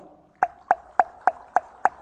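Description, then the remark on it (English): Six hollow, popping Q clicks (the door-knocking click), made with the tongue against the roof of the mouth, evenly spaced in a steady rhythm, moderately loud with quiet between them and no talking. “Q click, the door knocking click. Tongue in the roof of the mouth.”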